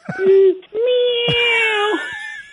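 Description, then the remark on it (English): A person imitates a cat's meow: a short mew followed by a longer, drawn-out, whiny meow that trails off, loud and clear with no other talking. “Meow.”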